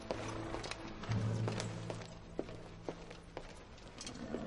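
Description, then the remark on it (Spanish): Footsteps of a duke crossing a hard castle courtyard toward a group of clergymen, with guards on foot and on horseback lined up, at an unhurried, steady pace, each step a distinct moderate thud, over a low sustained hum with no voices. “El duque camina hacia el grupo de eclesiásticos. Hay guardia a pie y a caballo formada en el patio.”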